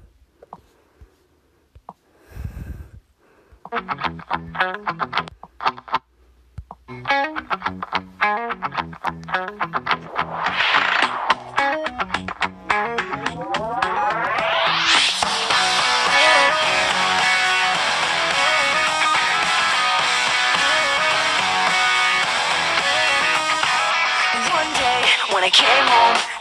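A pop rock song starts with a choppy, stuttering effects-laden intro and a rising sweep, then the full band crashes in loud and dense with distorted guitars; no one talks over it.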